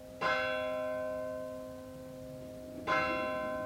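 A church bell strikes the quarter hour, two strokes about two and a half seconds apart, each ringing out with a long, shimmering hum that lingers between them; no one speaks.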